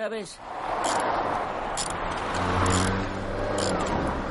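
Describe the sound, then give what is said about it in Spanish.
A car roars in fast and loud, arriving at Clovis's repair yard at high speed, a steady rushing engine noise that swells as low engine tones rise toward the end. A brief voice fragment sounds at the very start. “Walter llega al patio de reparación de Clovis a toda velocidad.”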